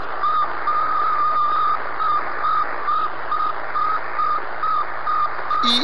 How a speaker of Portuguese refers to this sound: Então as pessoas apontavam para escutar o bip do, do Sputnik, porque era a rede social que eles tinham na época lá, era o bip do Sputnik, era a coisa maravilhosa de Deus escutar o bip é um bip. Se o, o editor puder colocar aí o bip do Sputnik.